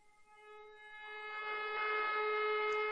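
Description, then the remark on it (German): A fire brigade siren sounds a steady, sustained tone that swells gradually louder over a few seconds, heard on its own without any voices. “Und wenn beim nächsten Mal die Feuerwehr Sirene wieder mal erschallt,”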